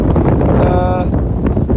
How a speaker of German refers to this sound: Ja, dass 60 ähnlich stürmisch agiert hätte wie der Wind jetzt hier gerade äh, auf dem Olympiagelände. Wir stehen am Parkplatz.